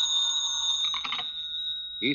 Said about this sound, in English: Wouldn't want to lay a little bet why this phone's ringing at this time of night, would you?